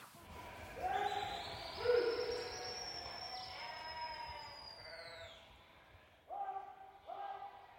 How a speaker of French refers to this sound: Les cris qu'on entend, ce sont chacun des bergers. Il y a un berger qui est plus proche de nous qui crie, il y a un autre un peu plus loin qui siffle, il y a d'autres encore plus loin qui ont chacun leur cri.